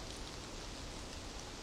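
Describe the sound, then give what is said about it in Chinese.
Light rain falls outside in a soft, steady hiss with faint patter, evenly textured and quiet throughout the short stretch, with no voices. “黄潇听到外面淅淅沥沥的雨声，他发觉外面已经下起了雨。”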